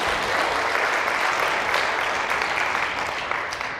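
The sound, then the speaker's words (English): A crowd claps steadily and loudly for a young man, a dense wash of applause that holds for a few seconds before tapering slightly at the end, with no one speaking over it. “Give this young man, handsome young man, a round of applause.”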